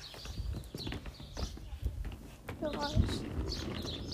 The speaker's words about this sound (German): Oh, das sind wieder meine Rollschuhe.